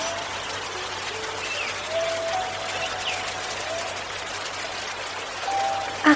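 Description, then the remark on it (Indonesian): Water from a cool spring gurgles and rushes steadily throughout, a continuous wash of flowing water at moderate loudness, with faint thin whistling tones drifting over it now and then. “Riciknya begitu merdu memasuki kalbu.”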